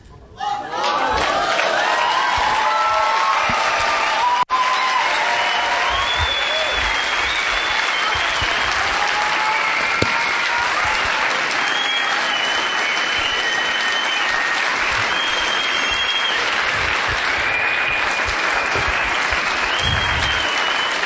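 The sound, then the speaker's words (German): A large audience breaks into sustained, dense applause for Jesus that stays loud and steady for about twenty seconds, with scattered cheers and whistles rising above the clapping. “Und meine Frage ist, machen wir eine Gedenkminute für ihn oder machen wir Applaus für ihn?”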